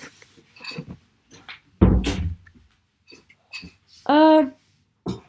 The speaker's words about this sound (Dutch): Nou, hier pak ik de microfoon.